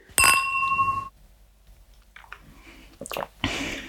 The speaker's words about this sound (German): Sollen wir, okay. wir erstmal anstoßen? Erstmal weil anstoßen. setzt sich schon wieder ab hier. Hier, komm. Gut. Chin, chin, chin.